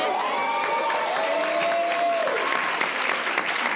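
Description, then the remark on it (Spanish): An audience applauds a panelist being introduced, a steady, dense patter of many hands clapping at even loudness, with a few cheers and whoops rising over it in the first couple of seconds. “Un aplauso.”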